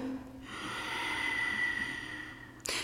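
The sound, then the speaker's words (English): A long, steady ujjayi breath exhale, like trying to fog up a mirror, with a soft hissing, ocean-like rasp from the back of the throat, mouth closed, about two seconds long, ending with a brief noise. “You might, if it feels good, move into a practice of ujjayi breath, which is an H sounding breath at the back of your throat, kind of like you're trying to fog up a mirror, but with your mouth closed.”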